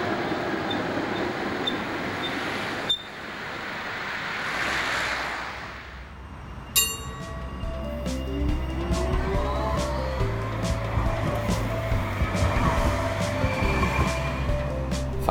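A line 42 bus or tram pulls up with rumbling engine noise, a brief whoosh and a sharp hiss of brakes or doors, then idles with mechanical whirring and clunks, no speech.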